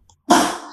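A single stifled sneeze bursts out close by after a brief faint intake, sharp at the onset and then trailing off in a breathy hiss, with no talking around it.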